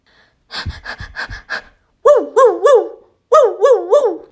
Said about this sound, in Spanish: A través del teléfono, Javi oye un extraño jadeo y después un ladrido.